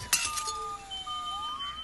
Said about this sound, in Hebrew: קול של התנפצות